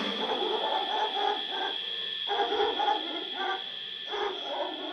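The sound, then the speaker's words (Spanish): A dog barks repeatedly in the distance, a series of muffled, evenly spaced woofs over a steady background hiss, faint rather than close. “A lo lejos, un perro.”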